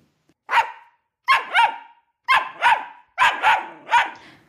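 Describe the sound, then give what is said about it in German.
A puppy barks in about eight short, high yips, arriving singly and then in quick pairs and triplets, with brief silences between them and no one speaking. “Doch die Hebamme nahm der Frau das Kind dann einfach weg und legte stattdessen in die Krippe einen Welpen.”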